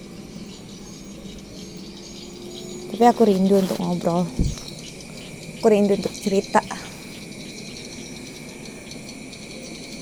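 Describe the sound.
Swiftlet calls from a swiftlet nesting place at a residence form a constant, thin, high-pitched chittering in the background throughout, fairly faint and steady, while a person speaks in two short bursts over it.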